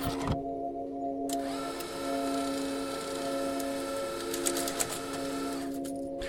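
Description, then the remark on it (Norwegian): A steady mechanical whirring and hum from a cash deposit machine drawing in banknotes, with faint ticking and rustling clicks, continuous, no voices. “Penger på vei inn i en eh, innskuddsautomat.”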